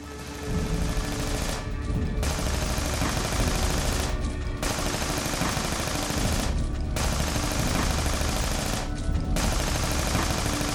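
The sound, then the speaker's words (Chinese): Loud automatic rifle fire from an AK-47 shot out of a car's passenger-side window toward attackers ahead, rattling in long sustained bursts broken by four brief pauses at roughly regular intervals, with no voices heard. “因为我是第一次真正用 AK 来射击，我也很害怕。当时把整个头埋低，身子放低，把枪拿出来，伸出副驾的那个窗口，对着前面一顿乱扫。”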